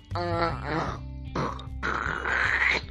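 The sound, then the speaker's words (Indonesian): A person imitates snoring with three rough, throaty bursts: a voiced grunting snort, a short breathy rasp, then a longer gravelly exhale, loud and isolated. “Emang bunyi korok itu kayak gimana?”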